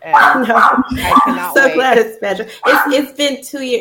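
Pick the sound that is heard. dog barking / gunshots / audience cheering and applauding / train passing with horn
dog barking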